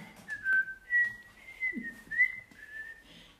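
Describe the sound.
A person whistles a short, wavering tune of a few sustained notes joined by slides, moderately quiet, with no talking over it.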